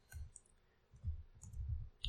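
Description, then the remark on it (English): Soft, irregular clicking of computer keyboard keys being tapped in quick bursts, fairly quiet, with brief pauses between clusters of keystrokes and no voices. “Legend of Vox Machina Kickstarter. I'm typing it in also.”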